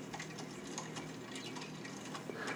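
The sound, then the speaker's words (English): A string of quick popping clicks made with the mouth repeats in an uneven rhythm, fairly soft, over a faint background hiss with no talking. “He opens his mouth and makes a pop sound. He does it again.”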